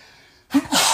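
A single sneeze: a brief sharp intake followed by a loud, breathy burst that cuts in after a moment of quiet.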